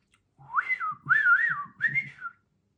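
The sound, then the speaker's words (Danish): Three short, warbling whistled phrases rise and fall in quick succession, fairly loud, like someone whistling to imitate three small, funny birds singing. “1, 2, 3 små sjove fugle. Hør, hvor de fløjter.”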